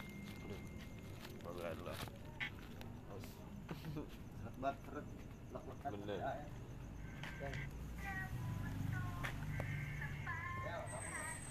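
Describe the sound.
A songbird chirps in short, bright bursts that grow busier toward the end, mixed with people talking and scattered tapping and clicking sounds.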